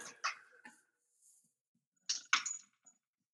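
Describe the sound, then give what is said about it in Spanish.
A dog named Lorenzo panting in two quick clusters of breathy, rapid huffs separated by a short quiet pause, with no talking in between. “Es que lo escucho, lo escucho jadear y, me da mucha...”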